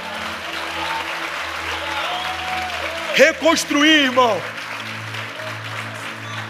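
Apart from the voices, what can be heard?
audience applauding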